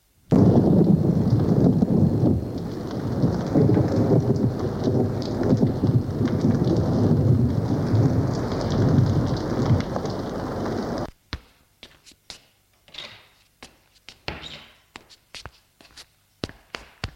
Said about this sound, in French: Cinq heures du matin et il fait de l'orage.